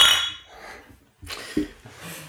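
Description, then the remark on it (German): Glasses clink together in a toast of "Prost", a bright ringing chink at the start, followed by a couple of softer knocks and rustling handling noises. “Prost.”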